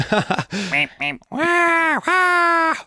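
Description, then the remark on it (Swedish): Someone imitates a raven's croak: a few short, rough vocal bursts, then two long, drawn-out nasal croaks, loud and clear. “Hur låter en korp då?”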